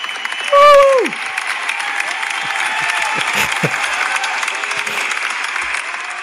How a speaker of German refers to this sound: Willst du jetzt die Applaus noch ja, einblenden oder da. nicht?